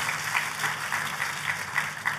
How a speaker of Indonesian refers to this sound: Tepuk tangannya pula yang paling meriah buat Tuhan kita.